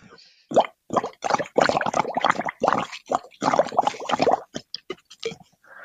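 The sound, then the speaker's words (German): Coarse crackles (coarse bubbling rales) heard through a stethoscope: bursts of bubbly, popping, gurgling sounds in repeated breathing cycles, moderately loud, with no talking. “Was wir gehört haben, waren grob blasige Rasselgeräusche, eine Form der Nebengeräusche, wie sie beispielsweise bei einer schweren Pneumonie oder beim kardialen Lungenödem auftreten können.”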